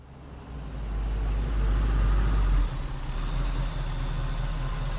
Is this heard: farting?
no